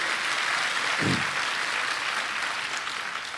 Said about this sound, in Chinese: 我们拍手将荣耀归给神，哈利路亚。